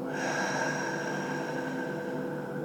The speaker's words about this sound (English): We'll begin with some deep rounds of breath just to slow everything down, to focus in. So let's take a deep breath in now and let it go.